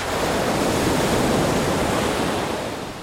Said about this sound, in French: On imagine combien cela doit être impressionnant de voir déferler des vagues immenses.